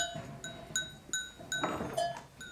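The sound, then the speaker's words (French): Several sonnailles, the bells worn by ewes, clank irregularly as a flock of sheep moves, overlapping metallic tones ringing, with a faint bleat and soft background rustle. “ça donne une autre dimension, je trouve on, parle de cloches quand on parle de, de, de, à vache, et on parle de sonailles quand on parle de brebis.”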